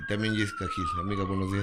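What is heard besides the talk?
ambulance siren passing by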